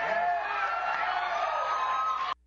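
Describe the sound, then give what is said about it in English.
A crowd cheers loudly with whoops, shouts and clapping blending into a dense, steady roar, responding to a request for a show of hands, for about two seconds before cutting off abruptly. “He's just asking for a show of hands if people start cheering and clapping.”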